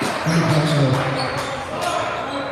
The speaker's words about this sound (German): Cam Hunt ist auch am Ball, ähm, auch neu in der drin, dribbelt den Ball nach vorne